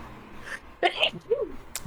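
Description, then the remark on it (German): A single sharp sneeze bursts out, a quick intake followed by an abrupt, noisy expulsion, with a short vocal trailing sound afterward. “Gesundheit.”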